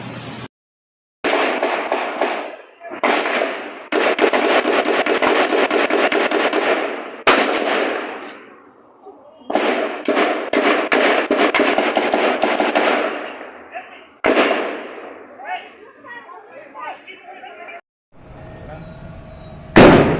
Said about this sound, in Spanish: Desde aquí de adentro estoy escuchando toda la balacera, se están enfrentando policías contra los delincuentes, sigue la balacera aún.